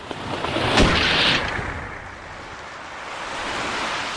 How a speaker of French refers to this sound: La bourrasque s'approchait avec la rapidité d'un cheval de course. Je commençais à ramer vers le rivage où se trouvaient les ruines de l'abbaye, alors que la tempête me rejoignait, les vagues me poussant vers la terre.